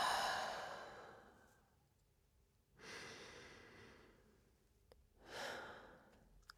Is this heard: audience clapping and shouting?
no